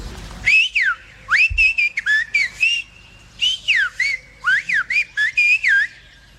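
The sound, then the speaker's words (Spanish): A silbo whistled-language exchange: loud, piercing whistles rising and falling in pitch, forming rapid phrase-like bursts with short pauses, like speech carried entirely by whistling, with no spoken voices. One person has hidden a stick behind a bush and the other whistles telling her where it is. “pues la gente se comunicaba, aprendieron a través del silbo.”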